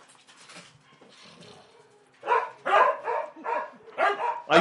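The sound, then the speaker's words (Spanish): Several dogs bark in a rapid, overlapping flurry, loud and agitated, in a dog fight outside that the local dogs join, after a quieter stretch of fainter barking and whimpering. “Hay, perdón, hay un pleito de perros acá afuera y los perros de acá salieron a tirar barrio también.”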